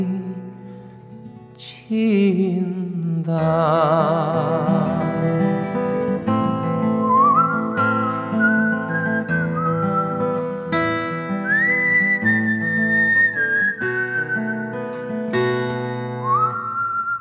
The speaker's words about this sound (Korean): 휘파람을 부니까 왜 낮은 그 담벼락에 탁 앉아갖고 예, 네. 그 휘파람 부는 게 멋진 오빠들 있잖아요.